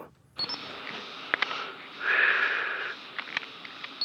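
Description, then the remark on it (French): A few sharp mechanical clicks of a photo camera shutter, spaced irregularly over a steady hiss, with a brief louder whirring burst in the middle. “des mon appareil de photo.”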